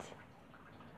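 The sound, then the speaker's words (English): A female dog lapping water in quick, wet, rhythmic laps, quiet, with no talking over it. “That's my dog lapping water.”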